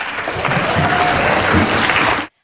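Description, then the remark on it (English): Sustained applause fills the Senate chamber as a bill lifting the ban on the ACT and Northern Territory legislating on voluntary assisted dying is passed, a dense steady clatter of many hands clapping at once for over two seconds before cutting off abruptly. “The Senate lifted the long standing ban overnight, marking a win for the ACT and the Northern Territory, the chamber breaking out into applause when the bill was passed.”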